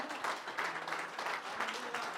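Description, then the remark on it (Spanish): A large church audience applauds in praise of the Lord during a worship service, a dense, steady wash of clapping that fills the space for a couple of seconds with slight swells in intensity. “Más fuerte, hermano, ese aplauso de alabanza ha sido para el Señor.”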